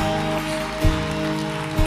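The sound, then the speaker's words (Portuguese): An audience applauds Jesus in a steady, dense patter of clapping over a sustained low musical drone, with two soft low thumps breaking through. “Se você deseja viver isso, dê um aplauso a Ele, fala: Jesus, nós queremos.”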